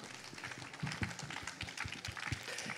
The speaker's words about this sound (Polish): Zapraszam na scenę. Wielkie brawa.